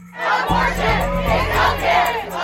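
A large crowd of women in the USA protesting over abortion rights shouts together, a loud, dense wall of raised voices that swells and surges continuously, with a low steady hum running underneath.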